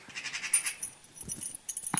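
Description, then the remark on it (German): Keys fall and clatter onto a hard floor, a bright metallic jingle followed by a few sharp knocks and a final clink, with no voices. “Oh, der Schlüssel ist heruntergefallen.”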